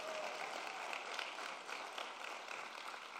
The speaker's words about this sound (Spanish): Alguien que le dé un aplauso al Señor como si usted lo entendiera.